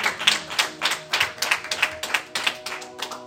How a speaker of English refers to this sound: Somebody shout amen. Or oh, if you're clapping, do it better, do it better.